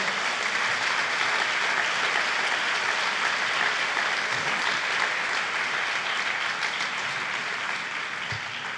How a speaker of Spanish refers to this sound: ¿Cuántos lo creen? El que lo cree, déle una ofrenda de palmas al Señor.